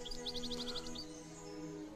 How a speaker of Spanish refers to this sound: ¿Oís? ¿Oís a ese pájaro? Sí. Es un jilguero. Pero ¿cómo es posible? Ese pájaro es el mismo pájaro que cantaba aquí cuando yo era un chiquillo.